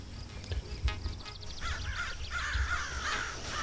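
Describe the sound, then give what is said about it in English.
A crow caws several times outdoors, harsh repeated calls over a low rumbling background, with a few dull thumps early on. “Oh, there's a crow.”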